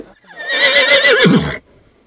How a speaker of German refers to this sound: Und das war wirklich Viento, das Pferd von Melanie Garanin, den ich noch auf der Koppel getroffen habe. Manche kennen ihn ja auch von Instagram. Da ist er so ein richtiger Medienstar, weil er weiß, sich in Szene zu setzen.